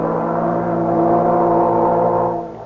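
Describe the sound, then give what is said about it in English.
A ship's all-ashore signal blows as a boat prepares to sail from New York: one long, steady, deep horn blast, loud, holding for a couple of seconds before fading away. “Well, there goes the all ashore signal.”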